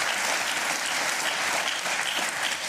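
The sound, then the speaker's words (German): Steady, dense applause from a ZDF talk show studio audience, many hands clapping at once in a continuous wash of sound, fairly loud and even throughout with no voices standing out. “genießen Sie den Beifall.”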